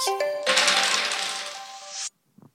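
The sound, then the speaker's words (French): Dice bearing pictures clatter and roll across a hard surface, a dense rattling lasting over a second before stopping abruptly, followed by a faint soft knock. “Je vais donc t'inviter à lancer ces dés qui portent des dessins et partager euh, avec nous eh bien, ce que cela t'évoque.”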